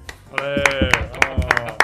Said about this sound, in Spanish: no tenéis, no tenéis, pero te vamos a dar, tocar las palmas.